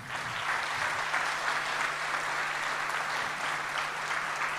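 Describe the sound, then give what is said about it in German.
Steady audience applause for the fathers after a spoken blessing, a dense wash of many hands clapping at an even, sustained level throughout, with no speech over it. “Väter, können wir Ihnen einen Applaus geben?”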